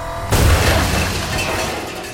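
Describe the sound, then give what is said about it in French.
A ram truck smashes into a warehouse in an assault launched by Elliot Ness: one sudden, loud, booming impact followed by splintering and shattering debris that rumbles and rattles on for about two seconds. No one speaks. “À l'aide d'un camion bélier, il lance l'assaut sur un entrepôt.”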